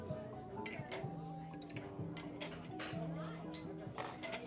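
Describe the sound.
Busy café ambience with repeated clinks of dishes and cutlery over a steady backdrop of soft jazz music and murmuring voices, the sharp clatters popping up irregularly throughout.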